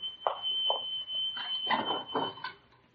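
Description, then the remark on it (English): A kettle whistles as water boils, with a single steady, high-pitched tone that holds for the full three seconds, while several short, louder bursts of clattering and rustling come and go over it. “The water's ready.”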